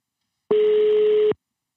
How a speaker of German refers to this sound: Ja, es klingelt. Es klingelt immer.